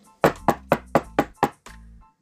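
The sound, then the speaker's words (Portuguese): Six sharp, evenly spaced knocks on a door ring out in a steady rhythm, fairly loud, followed by a brief low thud as the sequence ends. “E lá estava o porquinho descansando quando de repente escutou um barulho, uma batida na porta.”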